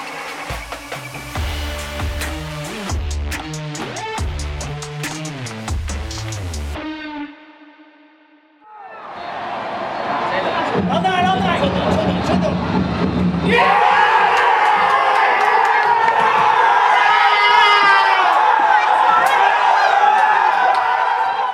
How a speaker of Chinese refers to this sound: 在刚刚前面开头所听到呢，就是二零二三中华职棒三十四年的总冠军味全龙队在抛下红色彩带在休息室的第一视角。